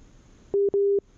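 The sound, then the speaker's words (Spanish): A telephone busy tone sounds loud after a call drops amid poor reception: a short steady beep, a brief gap, then a longer beep at the same pitch, following a moment of faint line hiss. “Hijo, a ver, no, no, no, lo quiten de la línea porque eh, usted lo sabe igual que nosotros, a todos nos pasa, todos lo padecemos, a veces agarra, a veces no, y a veces se tarda un montón de tiempo en conectar”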